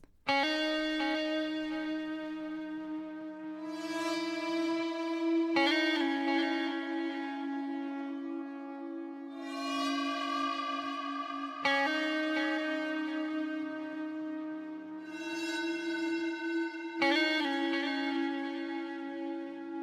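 The intro of a music track played in Reaper without processing, led by sustained electric guitar with effects and reverb, chords ringing out and shifting every few seconds at a steady, fairly loud level, with no voices.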